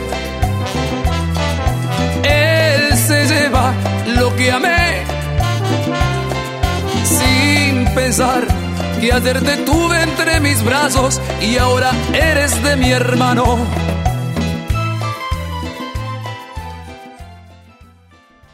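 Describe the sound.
A recorded song with a woman singing in Spanish over a full, steady band accompaniment, loud and continuous before fading out at the very end.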